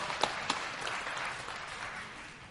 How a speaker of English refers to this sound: Oh yeah, let's give her a round of applause.